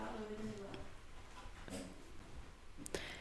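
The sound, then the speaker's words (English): Dogs whimper and whine as they are let out, starting with a drawn-out, wavering whine followed by a few shorter whimpers and sniffs over a steady background hiss. “going to let the dogs out.”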